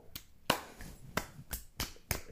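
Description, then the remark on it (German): Hand clapping, about seven sharp, crisp claps at an uneven, unhurried pace, with no one speaking. “Kann man ruhig mal klatschen. Da kann man mal klatschen.”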